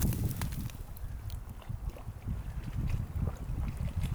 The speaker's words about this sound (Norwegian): En sånn hyggelig sjølyd, sol og glitrende hav.